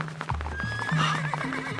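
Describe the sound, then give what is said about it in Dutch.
Hooves of many horses clatter in a dense, continuous trampling rhythm, fairly loud, heard in the distance and coming closer, with a horse's high whinny rising over the galloping. “Hoefgetrappel heel veel paarden. Het komt dichterbij.”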